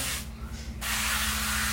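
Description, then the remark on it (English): A short burst of sprayable olive oil hisses onto a new, pre-seasoned cast iron griddle, with a brief pause midway before the steady hiss resumes, fairly loud, with no talking. “Um, spray that on. That's a sprayable olive oil if you didn't hear that.”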